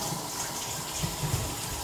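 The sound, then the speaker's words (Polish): Tap water runs in a steady rush, splashing over mushrooms being rinsed beneath it, each turned stem up and then down, with small bumps and shifts in the flow; no one speaks. “Teraz pieczarki kupuję sobie i tłuczę pod bieżącą wodą też, żeby mogło być.”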